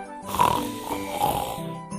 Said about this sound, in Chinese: 帐篷里的小猪终于睡了个安稳觉。帐篷小猪打起呼噜，一声声传出两个字：舒服。